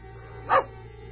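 A single short, clear dog bark rises out of a quiet background with a faint steady hum underneath.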